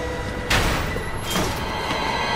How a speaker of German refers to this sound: Er wollte gerade wieder zum Ausgang laufen, als die Tür aufgerissen wurde.